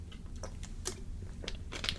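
A water bottle being handled and sipped from: a scattering of soft crinkling clicks and small plastic taps over a low rumble, irregular and fairly quiet, with no talking.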